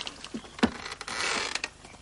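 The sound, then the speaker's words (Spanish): Sancho opens the door of Don Quixote's cage: a metal cage door creaks open with a sharp clunk followed by a drawn-out, grinding squeal, fairly loud with no voices. “Sancho abre la puerta de la jaula.”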